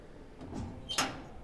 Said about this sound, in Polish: Drzwi do jej pokoju zostały zamknięte z zewnątrz na klucz.